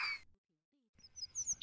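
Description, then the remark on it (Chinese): A small bird in a tree chirps in quick, high-pitched tweets, with a short burst at the start, a pause, then a livelier run of bright chirps rising to the end. “这时，树上有一只可爱的小鸟也飞过来给他帮忙。”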